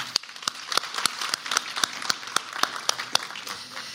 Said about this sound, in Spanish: Demos un caluroso aplauso.